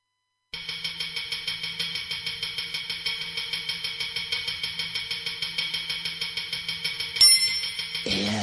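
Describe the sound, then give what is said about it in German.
An industrial rock track, the title song of an album, opens with a steady, rapid pulse of bright metallic ringing, loud, before a sharp clash and shift in texture near the end. No voices are heard. “Und wo wir jetzt gerade das Album angesprochen haben, hören wir uns doch den Titelsong an.”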